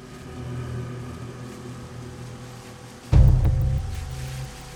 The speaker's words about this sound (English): just before 8 p.m., a dark blue pickup truck pulls into the parking lot. A teenage girl hops out and hurries into the yogurt shop, adjusting her polo shirt as she goes.